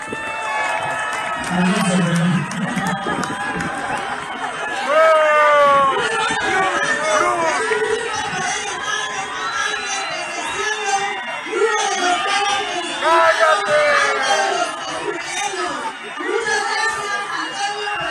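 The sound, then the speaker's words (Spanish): A large crowd boos the president loudly and steadily at her presentation, a dense wall of jeering voices with scattered shouts and yells rising above it throughout, sustained with no pause. “ahí está, entre abucheos y, cállate.”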